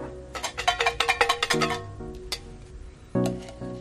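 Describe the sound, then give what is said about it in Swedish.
Paper slips rattle inside a jar as it is shaken quickly, a burst of about eight sharp rattles, followed by a few softer, scattered clinks and a final short shake. “Du ska få dra en lapp i burken, skaka den.”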